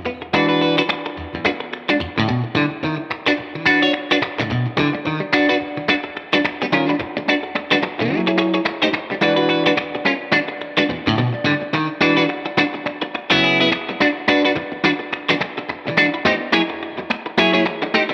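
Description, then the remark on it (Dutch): An electric guitar with a bright, twangy middle-pickup tone plays a steady, busy run of plucked notes and chords for the whole stretch, loud and even, with no talking. “De twang.”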